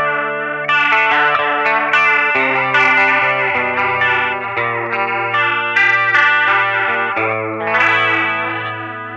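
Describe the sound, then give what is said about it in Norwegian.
An electric guitar plays sustained, distorted chords through a chorus pedal set to vibrato, giving a wavering, pitch-wobbling shimmer; loud, with no voices. “Så nå står den i vibrato-mode.”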